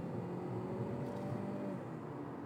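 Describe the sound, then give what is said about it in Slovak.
A car engine's intake roars with a turbo whoosh from a 166 kW sport-version car with a 7-speed automatic gearbox. It is a steady, full-bodied drone carrying faint whistling tones that holds level throughout, fairly loud with no voices. “Také, má toto sanie taký zvuk a turbo a všetko taký, wow.”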